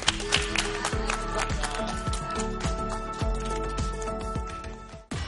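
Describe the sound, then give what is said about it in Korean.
A studio audience applauds steadily for several seconds for Professor Hong Seok-cheol after his lecture, while upbeat music with a regular thumping beat plays underneath, both fairly loud, before fading out abruptly at the end. “아, 훌륭한 강연 해주신 우리 홍석철 교수님께 다시 한번 박수를 네.”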